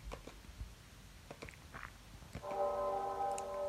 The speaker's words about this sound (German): Es ist das Freitagsgeläut. Zur Todesstunde Jesu um drei Uhr. Erinnerung an sein Kreuzesopfer auf Golgatha, jeden Freitag.